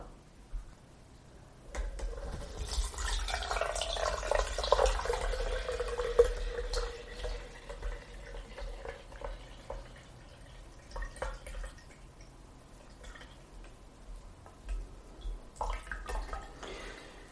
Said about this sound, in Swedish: Så att nu ska jag ta och hälla över teet som har bryggt i en kastrull här. Jag ska hälla över det i en tillbringare eh, genom en tesil så att jag får bort tebladen.